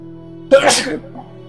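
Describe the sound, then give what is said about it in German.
A single loud sneeze: a sharp intake bursting into a hissy, explosive release that fades within half a second, over a faint steady background hum. “Gesundheit.”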